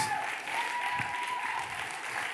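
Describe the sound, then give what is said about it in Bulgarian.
An audience applauds in a dense, steady wash of many hands clapping at once, holding an even loudness throughout with a faint thin whistle-like tone running through it. “Това е ръкопляскане на завист.”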